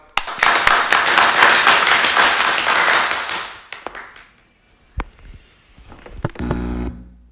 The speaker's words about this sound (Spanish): Démosle todos un fuerte aplauso.